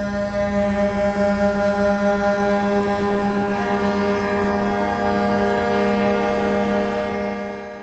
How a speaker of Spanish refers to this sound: decenas de camioneros esperando, quejándose de la única manera que tienen para hacerlo, el claxon.